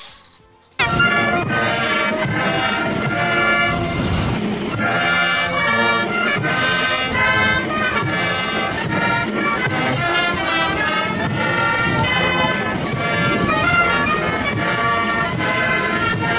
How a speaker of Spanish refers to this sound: Y, y bueno, pues el hombre ha tenido que aguantar estoicamente como suena nuestro himno por aquellas, por aquellas latitudes. Vamos a escucharlo.